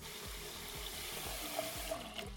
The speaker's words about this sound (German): füllt gerade den Topf mit Wasser.